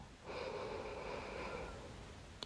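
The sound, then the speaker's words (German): A slow, deliberate inhalation drawn in through the nose while counting to four, steady and airy for about a second and a half, with no talking, ending in a faint click. “Bedeutet also, man atmet, indem man auf 4 zählt, bewusst ein.”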